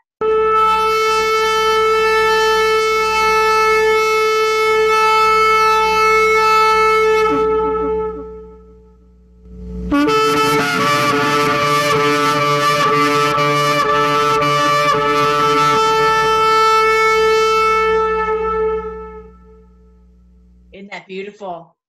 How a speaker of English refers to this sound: All right, so here is a shofar. Check it out.